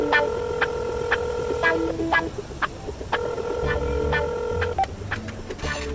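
A telephone being dialed: steady electronic tones interrupted by a series of sharp button clicks, fairly loud, with a low hum underneath and no one speaking.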